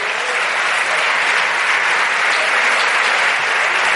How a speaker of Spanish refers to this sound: Démosle ese aplauso fuerte al que vive.